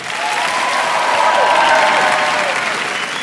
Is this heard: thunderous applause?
yes